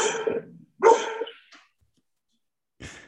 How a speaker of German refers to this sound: Der Hund ist da.